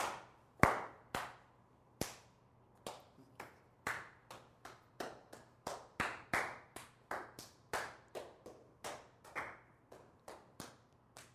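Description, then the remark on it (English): In a group practice exercise, single hand claps follow one another in a steady chain, about two per second, each a sharp, slightly different-sounding snap as the clap passes from person to person around the group. “So I'm going to uh, clap, and then you're going to clap and then you're going to clap, and we're going to see how we can go around like this.”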